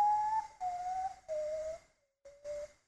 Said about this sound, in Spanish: Ese es el sonido del cacuy.